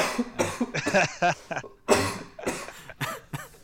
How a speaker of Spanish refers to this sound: Sí, yo creo que. pues de paso contagia a toda la audiencia con esa tos.